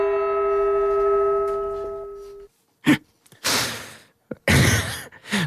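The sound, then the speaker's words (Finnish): A struck gong rings with steady metallic overtones for about two seconds, then cuts off, followed by several loud, breathy exhalations. “Nyt olen, pakko sanoa, että ihan pikkasen koen ylpeyttä tuosta viimeisestä kysymyksestä, joka ehti tulla tuohon kumman kongin kumahdukseen.”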